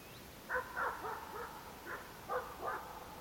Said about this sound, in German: So klingt die Stille in Lappland, ganz im Norden von Finnland. Nur 50 Kilometer von der russischen Grenze.